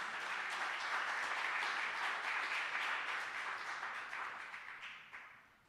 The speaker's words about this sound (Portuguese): Amém, irmãos? Aplaude o Senhor então em nome de Jesus.